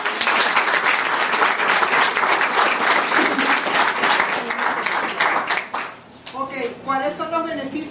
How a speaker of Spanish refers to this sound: Vamos a recibirla con un fuerte aplauso.